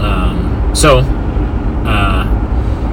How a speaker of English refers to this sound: So, we are back in the running car.